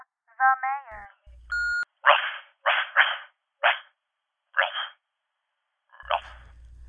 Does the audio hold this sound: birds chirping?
no